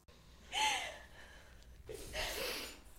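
A woman sobs close by: two shaky, catching gasps with a brief quivering voiced cry, separated by a short pause. No one speaks.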